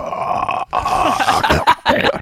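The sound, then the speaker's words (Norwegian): A single voice mimics the eerie Silent Hill horror game soundtrack with low, droning, growly tones, breaking off briefly and resuming in wavering bursts, without any words. “Eh, eh, så hører du på Silent Hill-soundtracket, sånn, og så er du uheldig og trekker ut av kabelen så du spiller sånn, sånn”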